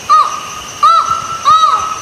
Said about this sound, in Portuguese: Nós ouvimos aqui o canto do falcão relógio, mas essa não é a única vocalização da espécie. Vamos ouvir um outro som que essa ave também emite.